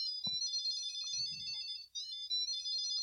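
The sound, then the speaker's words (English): A key finder fob attached to metal keys plays a tinny, high-pitched electronic melody that repeats steadily, its notes stepping up and down like a ringtone, with a couple of soft handling thumps underneath. “It's coming from my my key fob from attached from to the my metal keys.”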